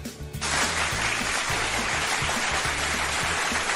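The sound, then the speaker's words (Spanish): A burst of applause sound effect starts abruptly and fills the whole clip, a dense, steady hiss of many claps that sounds much like heavy rain falling, loud with no voices. “aplauso, Aunque parece como lluvia, pero...”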